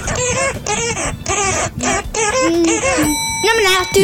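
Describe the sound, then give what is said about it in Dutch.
A parrot mimics human-like vocal sounds, a quick run of loud, shrill babbling syllables that resemble a child's chatter, ending with a few thin whistled tones. “En, en, en let op, dit zijn geen menselijke geluiden. Dit zijn geluiden van een papegaai.”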